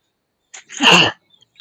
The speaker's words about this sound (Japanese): 壊れたで言うと、あの、ごめん、ちょっとくしゃみしそうだわ。